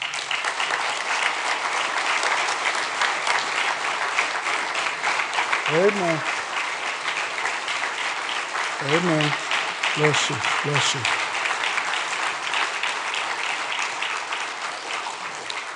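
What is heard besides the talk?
audience applause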